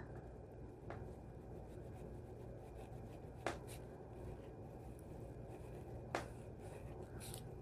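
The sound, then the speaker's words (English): Faint scratching of a gel pen drawing white lines across a postcard, quiet, with a few soft taps spaced a few seconds apart against a low steady background hum. “Never know with these gel pens. Kind of hit or miss.”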